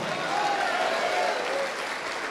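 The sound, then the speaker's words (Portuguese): An audience applauds steadily, a dense wash of many hands clapping at an even level throughout, with a faint tonal murmur of voices threaded beneath the clapping. “Vamos aplaudir mais, igreja.”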